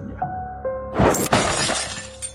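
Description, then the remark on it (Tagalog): A playing radio is grabbed and thrown hard against a wall: a steady tone plays briefly, then a loud crash with a second impact, followed by rattling, shattering debris as the radio breaks to pieces. No one speaks. “Alos mapasigaw ako sa gulat nang biglang bumukas ang pinto ng kwarto at dinakma ng tso andong ko ang radyo at itinapon ng malakas sa dingding.”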